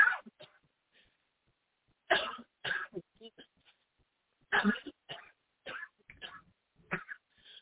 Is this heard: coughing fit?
yes